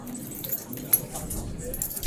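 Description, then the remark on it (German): Hotel room keys for room 213 jangle briefly in a few light metallic clinks, fairly quiet, as they are handed to a guest against a soft background. “Ich gebe Ihnen hier die Schlüssel.”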